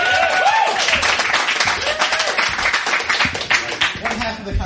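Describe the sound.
An audience breaks into loud, dense applause that stays steady the whole time, with scattered cheers and excited voices rising through the rapid crackle of many hands clapping.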